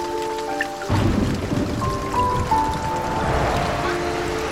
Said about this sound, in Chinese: 我住的城市下雨了，好想跟你说，我又忘了带伞